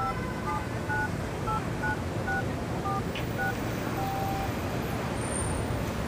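A rapid series of short, bright touch-tone beeps as a woman by her car dials a bank on a mobile phone to report a theft, ending with a slightly longer tone, over a steady wash of road traffic.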